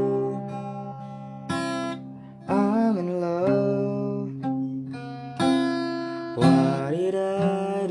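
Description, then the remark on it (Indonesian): A recorded song plays back steadily, with a sung melody gliding over sustained keyboard chords and fresh chords struck every second or so, fairly loud. “Kamu ingat gak sama lagu ini?”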